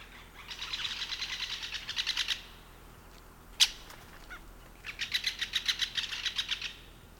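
Two bursts of rapid, high-pitched great spotted woodpecker calls, each a quick run of sharp repeated notes, split by a single loud click, with no talking.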